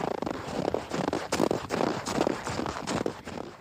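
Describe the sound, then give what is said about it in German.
Footsteps crunch and squeak through deep snow at a steady walking pace, about eight steps in a row with no voices present. “Hier zum Beispiel, das sind quietschende Schritte im Tiefschnee.”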